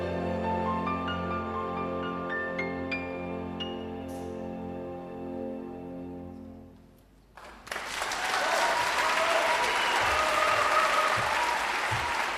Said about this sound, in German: Ja, ich glaube, das kam gut an, haben wir gerade gehört hier. Viel Applaus da in Leipzig im Felsenkeller, vor einem Jahr aufgenommen mit dem MDR Symphonieorchester, unserem Symphonieorchester unter Florian Ludwig in dem Fall.